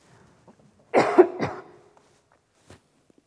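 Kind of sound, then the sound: human body sound, coughing and throat clearing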